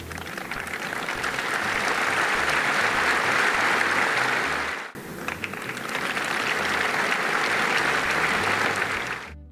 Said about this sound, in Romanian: Oricum, lumea a aplaudat așa ca la țociu, știi?